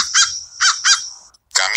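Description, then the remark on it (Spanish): Loud, nasal goose-like honks from a bird in a video game, three in quick succession, then a brief silence before a fourth harsh call. The sound is clear, with no talking. “Caminas hacia como el pájaros, no sé qué rayos es eso.”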